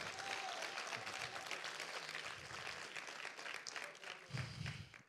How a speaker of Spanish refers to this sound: Alguien apláudale bien al Señor. Hágalo más, más.